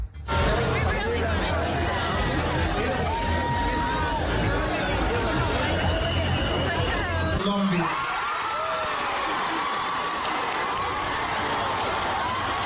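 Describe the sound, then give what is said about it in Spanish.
A large audience at the Miss Universe pageant of 20 December 2015 fills an auditorium with a steady, loud hubbub of overlapping voices, murmuring and applause, the dense crowd noise continuing without pause from start to finish. “Y entonces los aplausos y después de eso todo el auditorio parado.”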